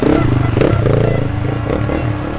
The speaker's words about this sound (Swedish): Det gick ju fint där med KTM genom myran. Den, eh, han körde lugnt och fint. En del kör ju liksom full ladd genom på varvtalsstoppet hela vägen medan andra lugnt och metodiskt äter sig i, fram genom myren.